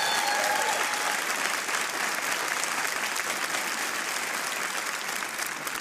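A round of applause: steady, dense clapping from many hands fills the whole stretch, loud and even, with faint crowd murmur underneath and no talking over it.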